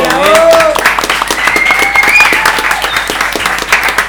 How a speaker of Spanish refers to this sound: Vamos a darle un aplauso a toda esta gente.